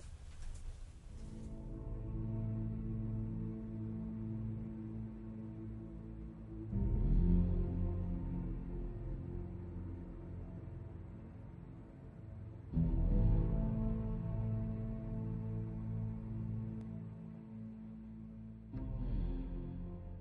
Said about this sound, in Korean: 역시 음악이 굉장히 웅장하네요.